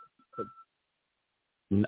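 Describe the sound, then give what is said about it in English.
A thin, steady telephone dial tone, stuck on the line, hums for about half a second, interrupted by short crackly bursts, then cuts to silence before a brief muffled voice-like burst at the end. “Sounds like a, uh, sounds like, uh, say something. the dial tone is stuck.”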